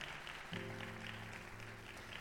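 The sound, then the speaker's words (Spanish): A church audience at a Spanish-language sermon applauds the Lord with steady, dense applause, a continuous wash of clapping that holds at an even level, with a low sustained organ-like tone entering partway through beneath it. “Alguien le da un aplauso al Señor, que lo entienda.”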